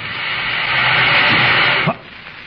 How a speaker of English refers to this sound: Wait a minute. I hear a faint hissing sound. That's either steam or compressed air, but where's it coming from?